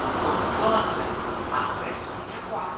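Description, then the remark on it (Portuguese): Steady rumble and hiss of a moving metro car, recorded from inside by a passenger standing in the car, a continuous roar of wheels and air with faint, indistinct voices mixed in. “E esse áudio é real, tá? Foi ela que gravou dentro do vagão.”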